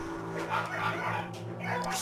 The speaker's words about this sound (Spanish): Me está hartando un poco esto de los perros, pero... Eh, eh.